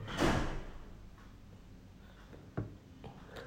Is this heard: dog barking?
no